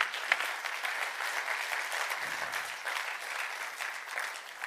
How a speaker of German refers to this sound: Geben wir doch der Manuela nochmal einen Applaus.